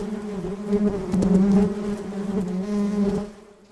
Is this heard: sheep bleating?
no